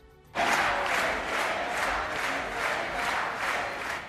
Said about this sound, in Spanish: Y entre los gritos de presidenta de las y los seguidores de Yolanda Díaz.